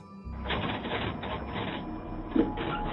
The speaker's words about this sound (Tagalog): Narinig mo yun? Xerox machine yun ni Lola Celia. Yun ang ginagamit niya sa pagpiprint ng mga posters ng missing child na sinasabi mong anak mo.